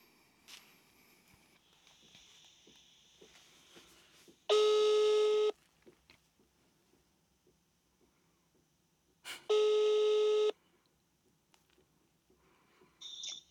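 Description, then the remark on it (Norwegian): Two long, loud ringback tones of an outgoing phone call, each about a second, spaced several seconds apart over faint room noise and soft clicks, with a brief tone starting at the end. “Vi ringer.”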